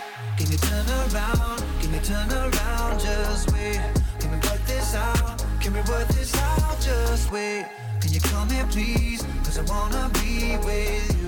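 A polished pop song plays loud and full, with punchy drums, deep sliding bass and layered vocals. It briefly cuts out near the end, then kicks straight back in.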